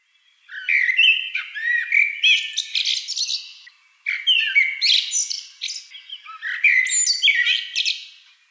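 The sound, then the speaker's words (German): A common blackbird sings clear in three long phrases, each starting with mellow fluted whistles and breaking into squeaky, high twittering, with brief pauses between. “Amsel.”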